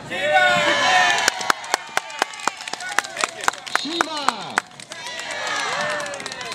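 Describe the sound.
A crowd claps and cheers, with sharp individual claps ringing out at a steady rhythm over a dense layer of shouting and whooping voices that swells at the start and end.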